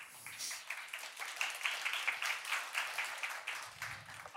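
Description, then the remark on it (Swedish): Steady applause from a debate audience fills the whole stretch, a dense patter of many hands clapping at moderate volume with no voices standing out. “tack, vad härligt att få börja med applåder.”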